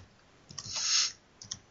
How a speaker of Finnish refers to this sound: taas nussit sitä näppäimistöä, että kuuluu tänne asti. No, se on huonompi homma.